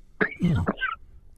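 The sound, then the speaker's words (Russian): A single short sneeze, a quick breathy intake followed by a sharp noisy burst, moderately loud, with no talking around it. “Будьте здоровы.”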